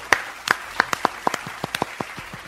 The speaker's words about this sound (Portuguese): Palmas pra fora, velho.